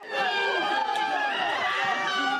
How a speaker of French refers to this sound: Il y a eu des cris de joie